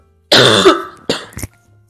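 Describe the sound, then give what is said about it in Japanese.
A rough, phlegmy throat clearing and cough, loud, from a throat ailment lasting over a month: one long raspy burst followed by two shorter harsh coughs, with no talking. “そう、喉以外がしてるなとか、咳がゴロゴロしてるな、みたいな。”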